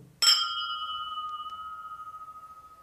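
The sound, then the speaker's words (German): A single bright clink of glasses touching in a toast, followed by a clear ringing tone that lingers and slowly fades with a gentle wavering pulse over a couple of seconds, fairly loud. “Prost erstmal. Zum Wohl. Wollen wir nochmal? Achtung.”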